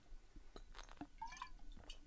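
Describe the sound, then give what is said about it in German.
Quiet liquid sounds of someone taking a small sip, with a light glassy clink and soft slurping, gurgling tones over about two seconds; no talking. “Kleinen Schub trinken.”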